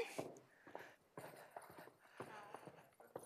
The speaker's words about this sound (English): What about if we were marching? Would we hear noise then?